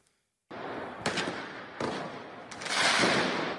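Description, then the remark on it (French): Firework mortar blasts, fired at police during New Year's Eve riots in Berlin, Germany, go off in quick succession, three or four sharp cracks over a continuous roar of crackling and hissing, loud throughout with no voices. “dans la nuit de la Saint-Sylvestre, notamment à Berlin, où des policiers ont été visés avec des tirs de mortier et des jets de bouteilles marines.”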